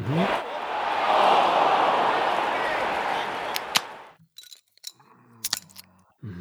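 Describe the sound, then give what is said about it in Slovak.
A bottle of Lindemans, a red Belgian Lambic beer, is opened with a sustained, loud fizzing hiss lasting several seconds, followed by a few sharp clicks and clinks with brief voice sounds in between. “Čože otváraš? No prosím pekne, ja som si otvoril. Lindemans.”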